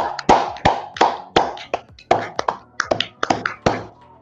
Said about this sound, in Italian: direi di fare anche un applauso a tutto il nostro pubblico che ci ha seguito fino all'una e mezza, eravate circa una settantina, a un certo punto avete toccato anche un picco di 85 persone, quindi grazie, un applauso.